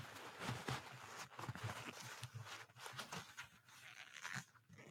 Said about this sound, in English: There, that you got one good one. That was a good squeak. One good one. Okay, and now so you can hear what that sounds like. So if somebody is going to be wearing a lot, a lot of leather, you're going to be looking for that kind of squeak.